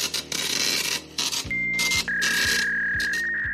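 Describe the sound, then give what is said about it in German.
An office fax machine at work, with rasping paper feed noise in bursts, a steady electronic beep tone, and a rhythmic mechanical chugging underneath. It's fairly loud, with no voices. “Aber in vielen Behörden wird heute wirklich noch täglich mit Faxgeräten, Blaupapier und ähnlichen Dingen gearbeitet.”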